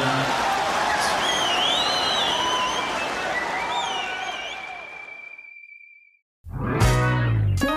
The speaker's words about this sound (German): Wow, was für ein schöner Jingle.